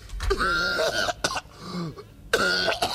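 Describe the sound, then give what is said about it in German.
A man, a rapper at the end of a song, coughs heavily and harshly in several loud bursts, with rasping, throaty hacking between the fits and no speech. “Und er kotzt sich auch noch schnell in die Lunge raus.”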